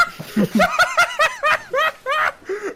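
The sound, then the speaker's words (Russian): A short burst of canned laughter plays as a stream donation alert, a string of rapid, rhythmic snickering bursts from several voices, fairly loud, lasting just under three seconds with no talking over it. “Слушай, мне нравится под этот донат говорить шутки, потому что сразу кажется, что они смешные.”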